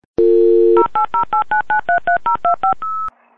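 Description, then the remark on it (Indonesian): A steady dial tone hums for about half a second, then a quick run of eleven crisp touch-tone beeps follows in an even rhythm, ending on a single longer tone, as a phone call is placed to a friend from Jogja living in Jakarta. Loud, no voices. “Yuk kita telepon untuk mendengarkan cerita dia.”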